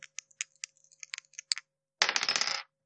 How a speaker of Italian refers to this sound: Sono due dadi.